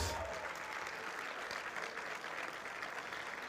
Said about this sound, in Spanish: le un fuerte aplauso a Jesús que nos llama a pesar de nuestra imperfección